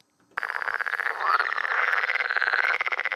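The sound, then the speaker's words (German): A water frog's mating call: a dense, rapid rattling croak with a steady pulsing rhythm, loud, starting abruptly and continuing without pause, with no voices present. “So tönt der Balzruf von Wasserfrösch, also der Ruf, der für die Paarung potenzielle Weibchen anlocken soll.”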